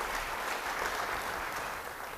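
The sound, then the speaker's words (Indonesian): Audience applause, a steady wash of many hands clapping at an even level throughout, with no talking over it. “Beri tepuk tangan sekali lagi bagi dia.”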